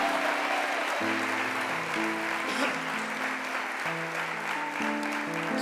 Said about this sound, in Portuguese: Aplaude a Ele, igreja!